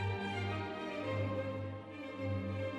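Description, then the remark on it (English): An orchestra of 326 hands plays a short passage of Mozart, with sustained, rich harmonic tones and a steady, full sound throughout. No voices are heard. “This is the sound of 326 hands playing Mozart.”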